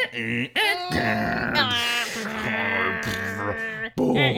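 A voice imitates the screech of an old dial-up modem connecting to the internet over a phone line. It makes a continuous, loud stretch of warbling, gliding tones and harsh wavering pitches, broken by two brief dips, without ordinary speech.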